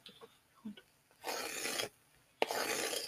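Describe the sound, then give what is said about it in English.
Two loud rasping scrapes across a thick crispy golden crust, each lasting under a second with a short quiet gap between them, and no talking. “Wow, that is a beautiful golden brown Listen, crust. just, just listen to this.”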